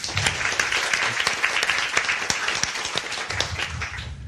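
A crowd applauds steadily, many hands clapping in a dense, continuous patter that holds at a fairly even loudness for several seconds with no voices standing out.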